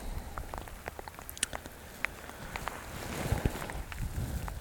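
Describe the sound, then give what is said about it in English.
Steady rain patters outdoors on a foggy mountain, having just started again, scattered droplets tapping against a soft, continuous wash of falling water, with faint low rumbling underneath. “Um, there's no sign of my friend who was walking up the mountain, and I haven't heard any voices, and the rain has just started again.”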